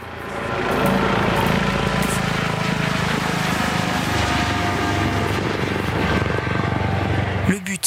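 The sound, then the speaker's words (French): A rescue helicopter arrives for an injured person, its rotor thudding steadily over a dense, loud engine drone that fills nearly the whole recording before cutting off abruptly at the end. “Après quelques minutes, l'hélicoptère arrive.”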